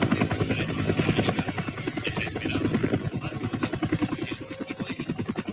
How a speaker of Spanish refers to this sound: Ahí viene bajando el helicóptero. Mira qué bonito el helicóptero.